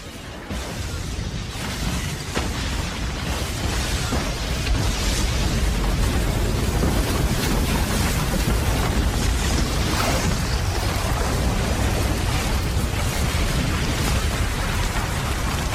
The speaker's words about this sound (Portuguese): E o vento me trouxe o eco de um grande trovão